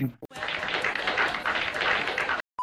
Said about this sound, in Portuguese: Essa frase merece uma salva de palmas, cara.